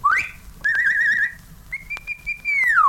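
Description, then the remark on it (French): A person whistles as if calling the neighbour's dog: a rising sweep, a warbling trill, then a long steady note that falls away at the end. Clear, with no talking. “Siffle le chien de la voisine”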